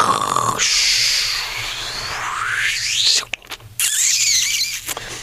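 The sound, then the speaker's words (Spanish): A choir of 80 women vocally imitating noises from a written score: shrill squeaks, rising sliding whoops and airy hissing bursts layered densely and loudly, broken by a couple of brief gaps, with no words sung. “Entonces nos pusimos a colaborar a ver de qué forma podía yo escribir la música en donde realmente el coro está cantando puro ruido, ¿no?”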